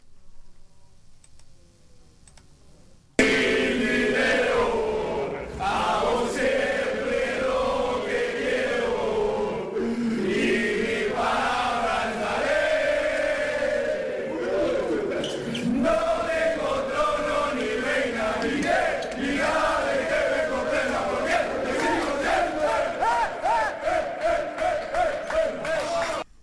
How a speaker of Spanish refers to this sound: Pocas veces sabe mejor este cántico que ellos tienen, siempre que sacan puntos importantes, siempre que ganan, por supuesto, pero además cuando sacas puntos importantes fuera de casa.